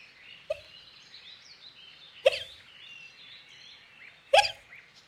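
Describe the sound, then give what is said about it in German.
Three sharp hiccups from a girl, fairly loud, spaced about two seconds apart, with faint bird chirps and wind in the trees in a soft outdoor background by the water between them. No one speaks. “Eine Weile hörten sie nichts weiter als Karl Heinz beim Rauchen den Wind in den Bäumen und das Hicksen der Emma.”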